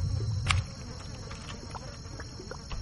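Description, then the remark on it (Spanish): A fly nearly the size of a person beats its wings in a low, droning hum, loudest in the first half-second, then fading to a softer, uneven flutter with faint scattered ticks. “tú empiezas a escuchar ese aleteo y abres la puerta con todo el sigilo posible.”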